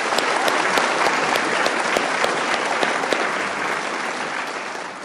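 A crowd applauds steadily, many hands clapping in a dense, even wash of sound that holds strong throughout and tapers only slightly toward the end.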